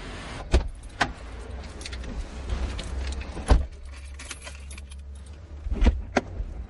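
A car's driver door opens and someone climbs into the driver's seat: sharp clicks and thumps at uneven intervals, light jingling like keys, over a steady low rumble, with no voices.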